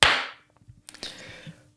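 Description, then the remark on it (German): A single sharp hand clap, made to sync a recording after a 3, 2, 1 count, rings out loudly at the start and trails off quickly, followed by quieter scattered knocks and a second brief crack, with no voices. “Ja, feuerfrei, dann klatsche ich hier mal.”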